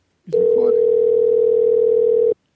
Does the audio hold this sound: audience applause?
no